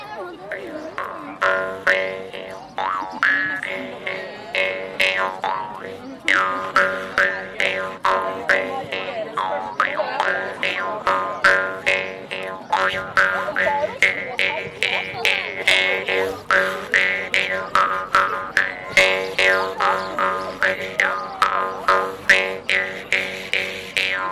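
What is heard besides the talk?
jaw harp being played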